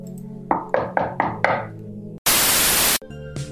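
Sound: knock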